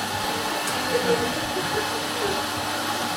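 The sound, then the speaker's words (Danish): A coffee machine runs with a loud, steady mechanical whir and hiss, continuous for the whole stretch, with no break in the noise. “Men det er som om, at kaffemaskiner er indstillet til at larme på de mest ømme tidspunkter i en samtale.”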